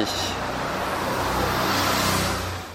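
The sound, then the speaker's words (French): A car drives steadily along the road on a Sunday morning, 12 June, at about 7:45, heading from Paris to a town an hour away, its engine humming low with a broad rush of tyre and road noise, fairly loud, easing off slightly at the end. “Donc je prends ma voiture, puisque j'habite euh, Paris.”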